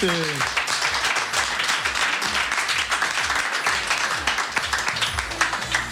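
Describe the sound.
Sustained audience applause, a dense steady wash of many hands clapping at even loudness for several seconds, with a brief voice audible at the very start.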